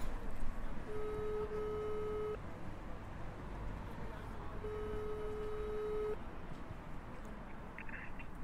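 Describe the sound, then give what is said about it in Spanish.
A phone call's ringing tone repeats twice, each steady electronic purr lasting about a second and a half with a long pause between, over a constant rushing background hiss. “¿Quieres que intentemos llamarle a ver si hay suerte y nos coge el teléfono?”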